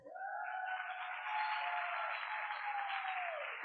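An audience applauds steadily for a few seconds, a dense, even wash of clapping with a sustained whistle-like tone running through it, with no talking.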